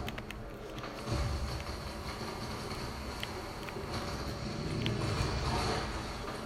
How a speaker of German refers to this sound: mein Gott, mich verfolgt ein Boot. Und es ist mega aggressiv.